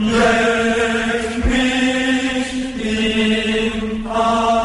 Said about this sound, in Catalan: És un cànon a sis veus sí? on primer, la primera veu exposa, exposa el tema, que el tema diu això, eh, fes-me un pet al cul, alegrem-nos, etc etc. i eh, sona, sona d'aquesta manera.